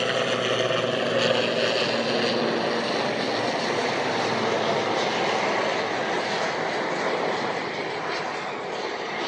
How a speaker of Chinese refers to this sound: 现在大家听到的这个轰鸣声是一架直升飞机，啊，它从我的面前掠过